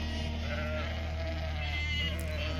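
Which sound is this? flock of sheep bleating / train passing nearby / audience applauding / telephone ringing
flock of sheep bleating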